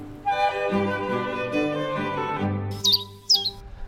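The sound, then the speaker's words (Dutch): Two bright, metallic bearded reedling calls ring out near the end, fairly loud, over a steady humming background with no voices. “En ze hebben een, de mannetjes hebben een mooi grijs-blauw kopje. Ja, met die twee, uh, mooi. Met twee bakkerbaarden.”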